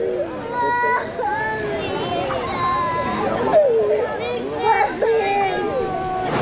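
Several young children in immigration detention cry and sob at once, their wailing voices overlapping in a steady, continuous stream with rising and breaking pitches and no pauses.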